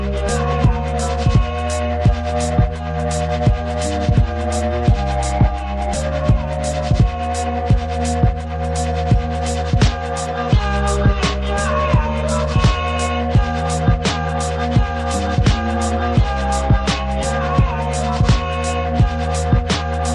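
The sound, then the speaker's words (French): An instrumental electronic track plays loud and continuous, a steady thumping beat landing roughly once a second over sustained synth chords and deep bass, with no vocals. “Là, c'est un élément instrumental.”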